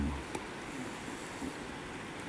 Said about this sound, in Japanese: 今なんかこう川の音とかうん日が外れる音とかゆっくりじっくりと味わってるっていうのはいいですね。